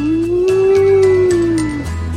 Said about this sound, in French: Eh ben, c'est des loups. C'est un loup solitaire. C'est un loup blessé.